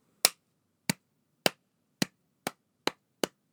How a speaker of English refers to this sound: slow clap because that's incredible.